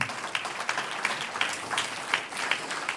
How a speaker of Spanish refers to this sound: Un aplauso al Señor.